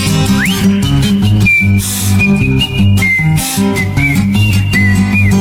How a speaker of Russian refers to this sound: Ежик резиновый шел, насвистывал дырочкой в правом боку.